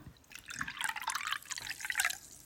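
Green schnapps being poured into a glass, a continuous trickle and splash with bright gurgling tones rising and falling over a couple of seconds, no voices.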